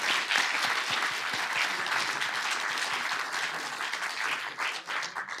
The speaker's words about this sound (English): Um, so again, we thank our two panelists with a round of applause